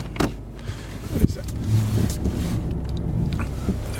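A car rolls along slowly behind others, its low engine rumble steady as if heard from inside, with a few soft knocks and clicks over the hum.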